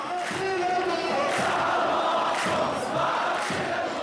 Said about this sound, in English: And it was really a remarkable atmosphere there. We saw people chanting, we saw people singing, um, we saw many people were going around distributing leaflets against sectarianism, calling for unity of all Syrian citizens.